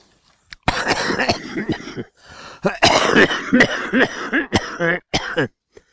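A person coughs hard and repeatedly, deep chesty bursts and hacking with throat-clearing, loud, in two long fits separated by a brief pause.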